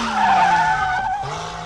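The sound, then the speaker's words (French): A vehicle engine roars loudly at full throttle, its strained whine holding steady, dipping slightly, then jumping up again briefly as it pushes on. No voices. “Et en termes de vitesse, pour ne pas faire attendre la moissonneuse batteuse au milieu du champ, je peux mettre les gaz”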